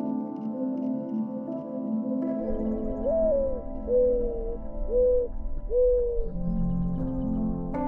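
A turtle dove coos four times in a slow, even rhythm, each note soft and rounded, heard over a steady low background drone.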